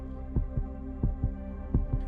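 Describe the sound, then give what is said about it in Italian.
A rapid heartbeat thumps in quick lub-dub pairs, three double beats in about two seconds, low and close over a steady hum, with no voices. “Era l'eco di tamburi da guerra che stava sentendo, oppure era semplicemente il battito accelerato del suo cuore?”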